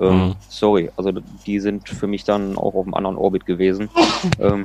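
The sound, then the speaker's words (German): A single sharp sneeze bursts out close to the microphone, followed by a person talking, with a brief laugh partway through. “Gesundheit”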